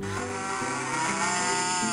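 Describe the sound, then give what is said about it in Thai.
A cow gives a long, loud, drawn-out moo that holds for about two seconds, with a deep, rich tone and no voices around it. “วัวตัวอื่นๆ ก็ยังคงเล่นต่อสู้เอาหัวชนกันทั้งวัน”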